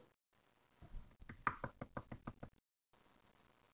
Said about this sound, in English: No, I was knocking on the, on the mic, I thought I went out.